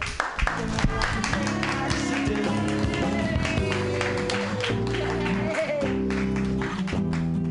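An audience applauds steadily for several seconds, a dense, continuous patter of many hands clapping at an even loudness, with sustained tones of music playing underneath.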